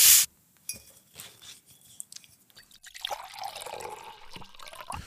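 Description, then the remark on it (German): A short sharp noise opens, followed by a few small clinks and drips, then drinking water pours steadily into a glass for the last couple of seconds, with no talking. “Irgendwas zu trinken? Kaffee, Tee, Wasser? Ein Wasser nehme ich gerne.”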